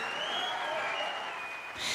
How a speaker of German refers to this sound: Und nicht nur wir, auch unsere Kinder kriegen hier Applaus.